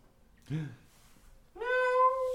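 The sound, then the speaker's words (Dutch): A cat meows twice: a short, lower mew, then after a brief pause a longer, drawn-out meow that holds its pitch. Fairly clear, with no talking. “De deur is dicht. Oké. En je hoort gemiauw.”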